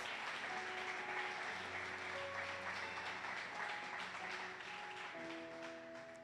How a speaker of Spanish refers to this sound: y ahora todo lo que está, dale pues ese fuerte aplauso a Dios.